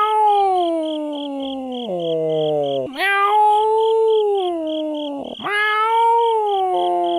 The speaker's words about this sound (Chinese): 陕西西安一天晚上，有一个高校内啊，半夜有一只猫咪啊，就老是搁那嗷嗷叫，喵。